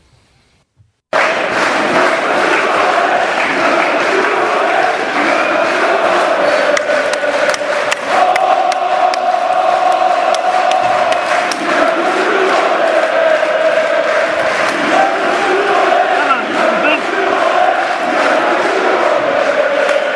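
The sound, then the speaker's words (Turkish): A large stadium crowd of fans chants and roars continuously during a pepper gas incident, a dense, loud wall of voices with sustained tones rising and falling, no pauses, after a brief silent start. “Şimdi şimdi bir dinleyelim biber gazı olayı öyle devam edelim.”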